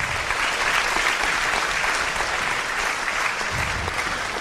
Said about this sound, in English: Yes, round of applause for that. That's worth celebrating.